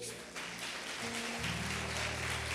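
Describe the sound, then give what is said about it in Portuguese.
An audience applauds for the Lord Jesus in a steady, dense wash of clapping that holds at an even loudness throughout, with sustained low musical tones droning underneath. “Salva de palmas para o Senhor Jesus.”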